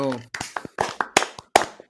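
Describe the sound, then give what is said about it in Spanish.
A short burst of hand clapping, brisk and fairly regular, starts right after a voice briefly speaks, the claps sharp, a small group or single person rather than a large crowd. “Un aplauso, hermano”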